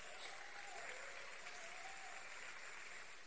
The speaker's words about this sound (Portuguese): Eu queria que você aplaudisse Jesus por ele, irmão.